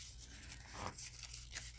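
Soft crinkling and rustling of scrapbook paper being folded and handled, a few brief crisp bursts over a faint low hum, with no voices.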